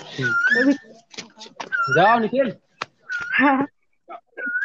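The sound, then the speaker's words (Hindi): An Asian koel calls in the background with a few short whistled notes, partly buried under nearby conversation, with one clearer call rising up just as the talking pauses at the end. “कहीं पीछे से कोयल की बहुत मधुर आवाज आ रही है बहुत सुनने के लिए मिली है हाँ बहुत बहुत सुंदर लगा ये कोयल की मीठी मीठी आवाज सुनकर”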